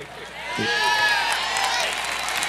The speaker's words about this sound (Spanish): Dese fuerte ese aplauso a Jesucristo.